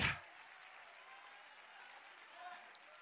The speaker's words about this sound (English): Could somebody clap your hands and open your mouth and shout, Yes. Shout, Yes. Shout.